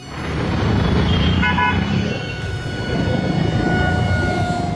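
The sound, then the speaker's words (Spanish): Dense, steady traffic rumble with several car horns blaring at once in a city traffic jam amid crowds of Christmas shoppers, their sustained tones overlapping and holding on throughout, loud. “Coches, atascos, humo, tumulto de gente, todo es negro.”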